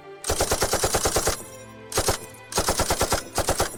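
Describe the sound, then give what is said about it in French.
Loud bursts of automatic fire from an M60 machine gun: a long rapid string of shots followed by two shorter bursts after brief pauses, sharp with no voices. “Et aussitôt, on entend la pétarade en ta direction.”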